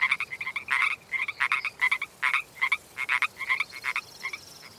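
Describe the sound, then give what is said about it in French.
Toads croak in a busy chorus, with rapid bursts of trilling calls repeating every fraction of a second, steady, and no voices over them. “Allez, venez dans mon seau, mes petits crapauds.”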